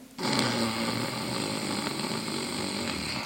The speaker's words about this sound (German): Und jetzt atme schnarchend ein.